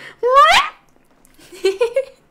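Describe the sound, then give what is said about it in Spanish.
A person's voice imitates their dog's whining yelp, as the dog made it in the hallway: one high, rising cry, then a short pause and a few softer whimpering pulses, fairly loud. “… así, haciendo como la queja de”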